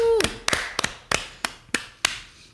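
A short burst of close, crisp hand claps, about eight sharp slaps in a steady, even rhythm, following a brief trailing voice at the start.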